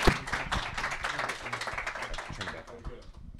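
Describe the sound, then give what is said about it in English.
A small group claps for a few seconds, a dense patter of overlapping handclaps at steady loudness, with some voices mixed in underneath. “Give applause.”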